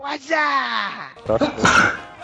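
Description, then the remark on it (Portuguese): A voice speaks briefly, then one sharp, noisy sneeze bursts out, loud and forceful, trailing off quickly. “Saúde.”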